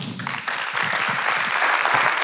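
Steady applause from an audience, a dense crackle of many hands clapping at an even, fairly loud level for a couple of seconds with no voices over it.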